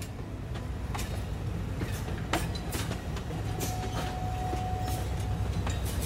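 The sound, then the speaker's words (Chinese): An Alishan Forest Railway train carrying passengers rattles steadily along the tracks, a constant low rumble punctuated by irregular sharp clacks, with a brief thin wheel squeal midway. No one speaks. “摇摇晃晃的车声不仅承载着兴奋的旅客们，更承载着百年的历史。”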